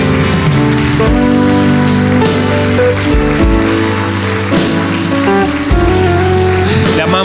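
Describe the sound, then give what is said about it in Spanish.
An audience applauds in a dense, steady roar of clapping that runs the whole way through, layered over loud sustained music with shifting held chords. “Le damos un fuerte aplauso a nuestro Señor.”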